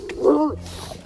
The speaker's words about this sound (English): Yeah, and that's my dog seeing people. When you have a bloodhound, they tend to be rather talkative.